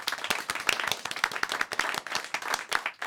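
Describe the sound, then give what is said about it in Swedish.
A small group applauds to thank a guest, a dense, steady patter of hand claps lasting a few seconds with no talking over it. “Ska vi applådera? Ja, det kan vi göra.”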